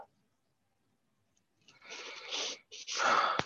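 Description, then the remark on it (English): After a moment of silence, two harsh, breathy sneezes burst out one right after the other, each a loud rush of air with no talking around them. “God bless you.”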